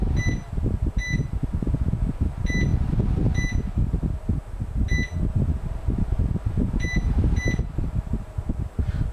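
A steady whooshing appliance fan runs throughout while short, bright electronic button beeps sound about six or seven times at irregular intervals as the mode button on its left side is pressed, switching the fan to fastest, slowest, then medium speed.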